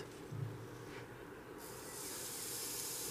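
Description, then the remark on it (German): Fish sizzles on a greased grill grate, a steady, fairly quiet hiss that turns brighter and fuller about halfway through, with a low rumble underneath and no voices. “Ich höre es, es zischt.”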